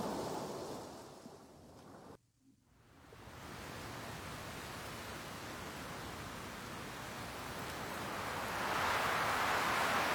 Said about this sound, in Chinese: 梦里的大海会说话，它依然轻轻地拍打着海滩，